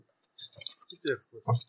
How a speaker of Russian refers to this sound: Я, я слышу, как открывать пиво. И оно ну, уже кончилось, между прочим, кстати говоря.